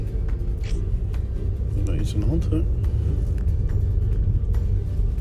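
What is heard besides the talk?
car nearby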